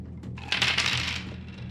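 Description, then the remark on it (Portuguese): Dice are rolled for an initiative test, where the highest roll goes first. They rattle and clatter across a surface in a quick burst of sharp clicks lasting under a second, over a steady low hum, with no voices. “Quem tirar o maior número do dado começa.”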